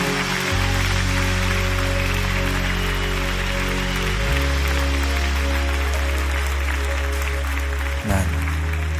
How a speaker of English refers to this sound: Let's clap our hands and thank God for his presence.